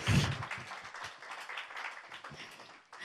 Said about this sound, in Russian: Можно дать Богу аплодисменты.